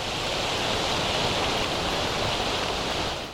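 An autumn leaves ambient sound from a sleep app: a continuous rustle of leaves forms a dense, even hiss that holds at a steady, moderate level for the whole stretch, with no voices or distinct individual sounds.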